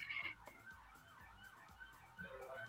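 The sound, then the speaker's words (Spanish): An ambulance siren wails as it passes outside, its pitch sweeping up and down continuously, fairly faint, with no voices over it. “Ay, qué miedo, neta, con las ambulancias.”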